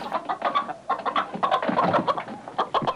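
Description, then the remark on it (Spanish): Several chickens on a farm cluck busily together, a dense run of short, overlapping clucks and squawks that continues steadily without pause, with no talking. “El dueño de la finca venía y se llevaba los peces, las gallinas y los conejos para venderlos.”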